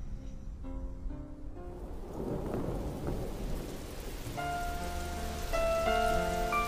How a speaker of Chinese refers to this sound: 你有多久没有打开耳朵，细细聆听雨滴打在树叶上的声音？